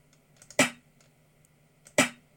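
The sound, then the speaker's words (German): Two sharp snare drum sample hits, about a second and a half apart, each a bright, noisy crack with a quick decay and a faint tonal ring underneath, standing alone without any talking, auditioned while choosing a snare sample during music production. “hört mal, die ist doch viel geiler. Ich nehme jetzt mal direkt ein anderes Snare.”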